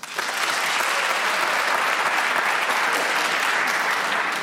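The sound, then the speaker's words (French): Sustained applause from audience members in the hall who were born in March, a dense steady wash of many hands clapping at an even loudness for the full few seconds, with no voices standing out. “Par applaudissement, qui est né en mars”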